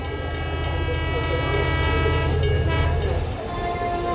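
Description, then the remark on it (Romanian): A train rolls steadily along the rails with a loud, continuous low rumble and sustained metallic tones over it; the heavy rumbling drops away near the end. “Ioi ce dor mi-a fost să fac o excursie cu trenul.”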